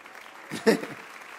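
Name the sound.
audience applauding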